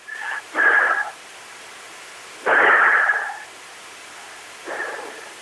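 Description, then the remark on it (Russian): A person imitates breathing under stress with three loud, deliberately exaggerated breaths, each a forceful rushing huff about a second long, separated by short pauses, with no talking. “То есть во время стресса, наверное, это примерно так получается.”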